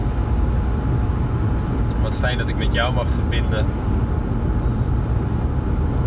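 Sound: car interior noise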